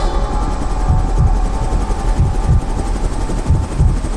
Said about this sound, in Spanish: ¡Piloto! ¡Baje más el helicóptero!